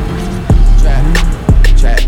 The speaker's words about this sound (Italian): per cui accendi un attimo la macchina